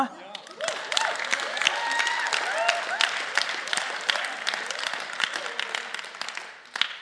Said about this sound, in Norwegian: Du må gjerne klappe.